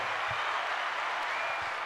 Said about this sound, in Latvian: Jā, nu Kazimieram varat aplausīt.